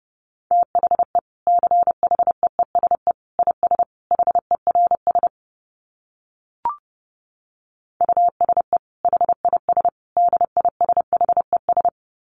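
Fast Morse code at about 30 words per minute, a steady mid-pitched beep keyed in rapid dots and dashes, sent in two runs separated by a pause with a single soft click.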